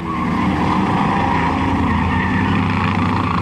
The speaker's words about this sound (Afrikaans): 'n Helikopter wat meters bo die grond hang by die twee drifkarre wat heen en weer oor die pad gly terwyl die helikopter hulle probeer vang.